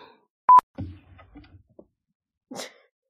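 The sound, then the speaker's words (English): A brief electronic beep and some low, muffled murmuring give way to a single short, sharp cat sound, almost like a sneeze. “okay, cat.”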